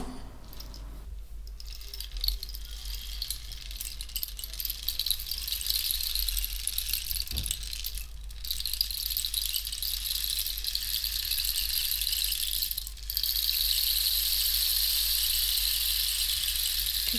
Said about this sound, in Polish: To jest instrument towarzyszący, który ma imitować właśnie deszcz, y, taki tropikalny. Bardzo niezwykły, bardzo niezwykły.